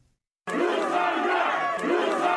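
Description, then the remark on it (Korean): A crowd of supporters chants the name of Prosecutor General Yoon Seok-youl in loud unison as he visits the Daegu Prosecutors' Office, rhythmic repeated shouts that start abruptly after a brief silence and continue steadily, energetic. “어제 지지자들의 연호 속에 대구검찰청을 방문한 윤석열 검찰총장.”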